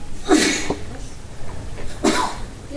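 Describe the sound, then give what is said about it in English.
Two sneezes, one after the other, each a sharp burst of air about a second and a half apart, moderately loud. “Bless you.”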